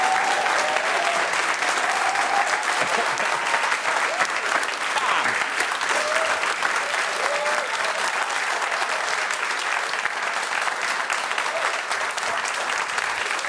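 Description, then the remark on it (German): A large audience applauds Nicole Jäger as she is welcomed, steadily for the whole stretch, a dense, even roar of many hands clapping at constant loudness, with a few faint cheers and whistles mixed in. “Einen herzlichen königlichen Applaus für Nicole Jäger.”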